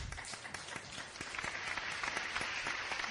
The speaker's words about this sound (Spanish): Ah, aplauso, por favor, para el doctor. por favor, también para la doctora.